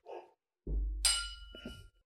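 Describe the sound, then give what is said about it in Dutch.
Glasses clink together once in a bright chime that rings briefly, preceded by a dull low thud, as in a toast. “En uh, proost.”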